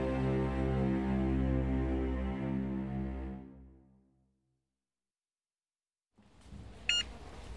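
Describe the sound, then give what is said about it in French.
A single sharp electronic scanner beep at a supermarket checkout rings out over low ambient store noise, after a long droning tone fades away into a few seconds of silence. “Les mêmes bips, toujours dans le même sens.”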